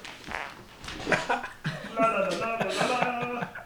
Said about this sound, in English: your headphone cushion made a nice fart noise as you. Oh, oh, I can't wait to hear that.